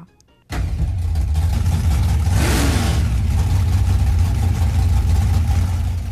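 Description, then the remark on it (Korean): Loud, deep engine rumble kicks in abruptly after a brief quiet moment, large-displacement engines of modified old cars revving steadily at a nostalgia drag racing event in Chattanooga, Tennessee, USA, with a surge of roar around the middle, heavy low-end throughout. “대배기량 엔진 소리로 시끄러운 이곳은 드래그 레이싱, 즉 회속 경주 대회 현장입니다.”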